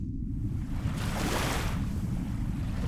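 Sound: ocean waves and surf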